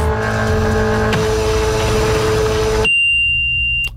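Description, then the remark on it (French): Fax machine transmission tones: a loud, harsh electronic screech of layered buzzing tones abruptly switches to a single steady high-pitched whine, which cuts off near the end. No voices. “Ça, euh, ça c'est un fax.”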